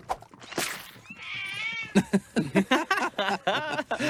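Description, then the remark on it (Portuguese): A mother cat lets out a single drawn-out, high-pitched meow, followed by a stretch of rapid, syllable-like sounds that may be talking. “A sua gata me atacou. É a gata-mãe.”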